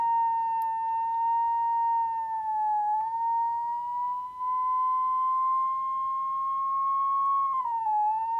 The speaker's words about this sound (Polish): I w zależności, w którą stronę kierujemy obiektyw naszego aparatu, im bliżej źródła światła, tym wyższy dźwięk. Ja teraz zasłoniłem obiektyw e, aparatu, odsłaniam go i obracam pomalutku urządzenie w stronę okna.